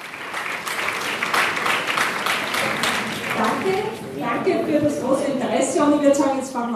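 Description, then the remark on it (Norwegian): A crowd of about 400 people at a public political meeting in Vienna, Austria, applauds steadily, the clapping dense, then a mass of voices rises in cheering and murmured talk as the applause carries on underneath. “Vi er på folkemøte i Wien. 400 mennesker har samlet seg for å høre de to som nå kjemper om å bli landets nye bondespresident.”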